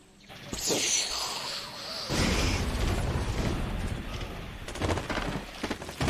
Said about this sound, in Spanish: ustedes en el barco escuchan un, un ruido muy potente, el de la pólvora.